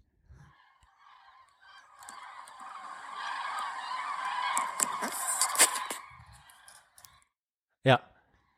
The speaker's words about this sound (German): Alter, ich habe vier Jahre in Bonn gelebt, ich habe das nie mitbekommen, hat mir nie jemand gesagt, dass da die Gänse drüber fliegen.